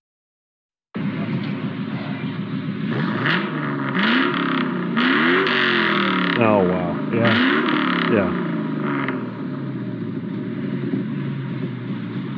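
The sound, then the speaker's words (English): A 2002 Mustang GT V8 fitted with a Pypes Pipe Bomb catback exhaust revs repeatedly, its deep rumble rising and falling in sharp sweeps, loud and played up to the mic, with brief reactions from people talking over it. “That was the Pypes, um, pipe bomb, catback exhaust. Yeah. On my 2002 Mustang GT.”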